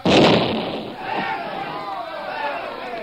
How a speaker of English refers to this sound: And at that moment, the first stick of dynamite exploded.